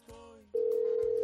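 A phone line ringing on an outgoing call: a loud, steady single-pitched ringback tone starts partway in and holds unbroken to the end, after a brief muffled sound at the start.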